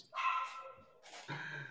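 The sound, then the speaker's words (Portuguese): A dog barks twice with a brief pause between, the second bark drawn out and lower, moderately quiet, with no talking over it. “O Jorge tem um cão do caralho.”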